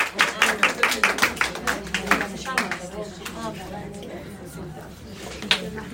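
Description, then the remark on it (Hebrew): A group of girls claps for the rabbanit for a few seconds, a quick, uneven burst of sharp hand claps that thins out and gives way to murmuring voices. “מה כפיים לרבנית, בנות,”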